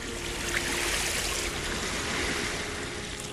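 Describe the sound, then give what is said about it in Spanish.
A steady wash of sea waves rushes and hisses without pause, a broad, even roar of surf from the sea below a house, with no voices over it. “Lo oigo hablar, respirar allá abajo, al mar.”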